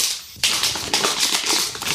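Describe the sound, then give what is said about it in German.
Crinkly plastic rustling of a bag of chocolate sweets (Schokobons) being handled, with a burst of crackling after a brief pause and continuing irregular crinkles and rattles. “Raschelt ja schon mal ganz gut.”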